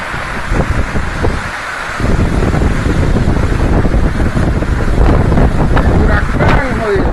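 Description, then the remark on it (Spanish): Powerful hurricane winds roar and buffet the microphone in a loud, continuous rush of noise over the islands of San Andrés, Providencia and Santa Catalina, Colombia, on 15 November 2020, easing briefly near the start before surging back at full force. “Así amaneció San Andrés, Providencia y Santa Catalina el pasado 15 de noviembre del 2020.”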